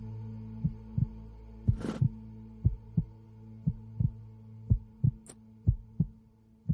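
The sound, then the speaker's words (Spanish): A steady heartbeat thumps in paired lub-dub beats, low and prominent over a faint droning hum, with a brief noisy rustle near the start and a tiny click later on. “Mis latidos aumentan y la mujer siguió hablando, pero ya ni siquiera escucho su voz.”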